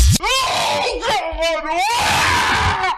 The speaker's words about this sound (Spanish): Es un, es un gemido de una mujer teniendo un orgasmo en un columpio sexual.